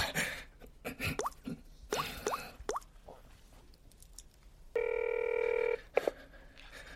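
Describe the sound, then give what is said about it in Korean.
A phone call rings unanswered: one steady, buzzy electronic ring tone lasting about a second, preceded by scattered clicks, squelches and small plopping sounds, with no one speaking. “아, 전화를 안 받네요.”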